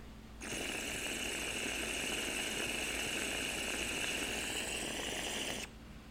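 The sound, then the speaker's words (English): A steady rushing whoosh of a glass water pipe with a four-hole disc percolator being pulled, bubbling and percolating for about five seconds, starting and stopping abruptly, with no talking over it. “she could take more water, but shreds like little jet engine, dude.”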